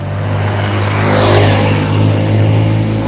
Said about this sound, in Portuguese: Tá passando moto, só quebrando coisa.